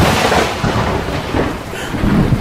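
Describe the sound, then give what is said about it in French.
A thunderstorm roars, deep rumbling thunder rolling continuously over a steady hiss of heavy rain, loud and dense throughout with no voices. “ça, quel orage On même la pluie.”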